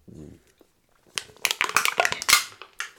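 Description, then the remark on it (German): A drink can is set down on a chair with a busy cluster of metallic clinks, taps and scrapes lasting over a second, after a brief low voice sound at the start. “Ähm, könntest du noch mal kurz erzählen, wo, wo, hast du das Getränk gerade hingestellt oder die Dose?”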